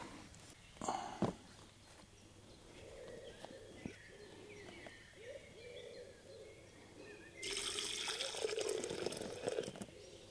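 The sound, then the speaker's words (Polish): Liquid spills from a carton onto a table in a fairly loud splashing gush near the end, after a quieter stretch with a couple of light knocks early on. “Oczywiście zalałem sobie stół z pudełka.”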